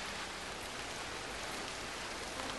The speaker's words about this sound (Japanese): 雨は勢いを止めなかった私のウィンドブレーカーに音を立てて跳ねる森の木々たちも雨に打たれてざわざわと落ち着きをなくす